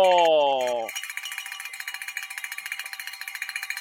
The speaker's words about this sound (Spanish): saca la campana de la fortuna y suena